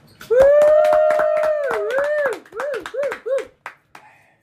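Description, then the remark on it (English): A whole bar crowd erupts into rhythmic clapping while a loud, drawn-out whooping holler rises and wavers over it, then tails off into a few scattered claps as the noise fades. “the whole bar I. erupts into applause.”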